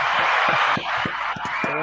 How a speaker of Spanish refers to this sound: Un aplauso para WhatsApp.